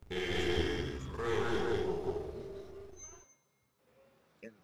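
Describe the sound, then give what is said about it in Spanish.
A long, loud, rumbling burp for a burping challenge on the Chaparranda program, swelling twice over about three seconds, then cutting off into near silence with a small brief sound near the end. “El eructo.”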